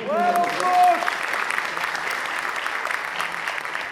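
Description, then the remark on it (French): An audience claps steadily in a dense, crackling wash of applause for guests being introduced, including YouTubers, carrying on evenly, with a voice briefly speaking over the clapping at the start. “On peut les applaudir aussi.”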